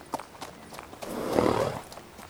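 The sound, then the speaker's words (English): Horse hooves clip-clop at a steady, unhurried pace as a horse is ridden, each hoofbeat a sharp knock, while a soft rushing swell rises and fades through the middle. No one speaks. “Riding for days at a time, a shotted piece on the back of a horse.”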